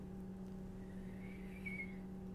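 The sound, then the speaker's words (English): A thin, faint human whistle rises briefly near the middle, a weak breathy attempt barely holding a pitch, over a steady low electrical hum with no talking. “we've discovered that I can whistle and … cannot. I have a weak whistler”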